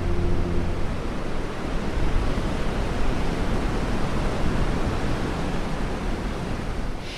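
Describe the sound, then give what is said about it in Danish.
A steady, loud roar of North Sea surf at Hvide Sande, a town on a narrow spit of sand between the sea and Ringkøbing Fjord, in January, a continuous wash of breaking waves with no distinct pauses and no voices. “Foran mig er Vesterhavet.”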